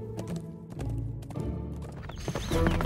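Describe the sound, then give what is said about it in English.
Horse hooves gallop in a quick, steady clip-clop rhythm, fairly loud, with a low rumbling backdrop underneath and no voices. “The eldest brother was galloping along on his steed when he came across a blue dwarf on the road.”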